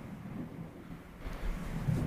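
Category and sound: nature, thunder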